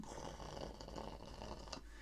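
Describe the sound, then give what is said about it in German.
A voice imitates a cat's purr with a steady, rumbling rattle that continues without a break for about two seconds, with no words spoken. “Schnurren bedeutet, die Katze fühlt sich wohl und macht.”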